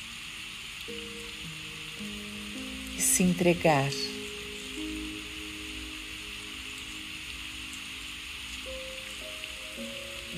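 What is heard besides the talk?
rain falling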